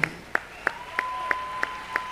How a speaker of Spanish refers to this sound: Un aplauso para él